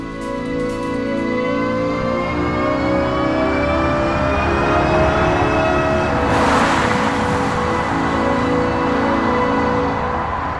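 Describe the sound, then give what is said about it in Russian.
An electric car's artificial pedestrian warning sound: a steady, synthetic humming drone of layered tones, loud and continuous, with a brief airy swell partway through. No one speaks. “Вот с таким звуком будут проезжать электромобили э, скоро.”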